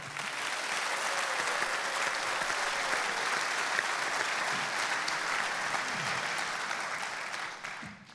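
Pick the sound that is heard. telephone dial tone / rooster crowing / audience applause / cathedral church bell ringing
audience applause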